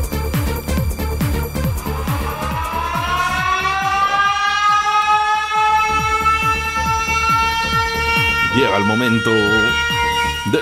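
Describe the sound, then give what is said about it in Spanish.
A loud siren slowly winds up in pitch and holds a steady wail, with a rhythmic mechanical thumping underneath and a brief voice-like warble near the end. “O sea, una sirena y daban perritos calientes.”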